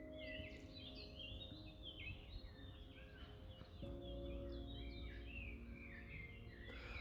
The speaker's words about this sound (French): Alors, euh, je fais ce podcast dans un parc. Alors, euh, nouvelle expérience, hein, on va laisser le chantonner, gazouiller les oiseaux derrière moi. Je vais te, je vais te laisser écouter un petit peu.